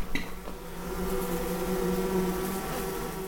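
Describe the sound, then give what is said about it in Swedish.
Honeybees inside a hive box buzzing steadily as they fan their wings, a dense, continuous drone with a brief tap near the start and no speech. “Man ser det där biet som står med och blåser med vingarna.”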